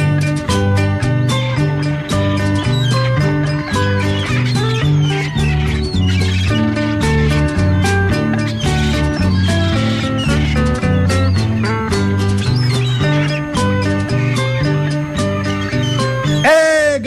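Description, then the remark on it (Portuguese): A song plays with steady instrumental backing while shrill, wavering cries, imitating a seagull's call, repeat loudly over the music throughout. “Porém só vejo a malvada gaivota voando baixinho, cantando assim.”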